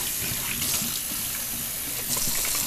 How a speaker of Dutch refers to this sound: Oké, nu ga ik de eh, fles vullen met water en dan is het klaar.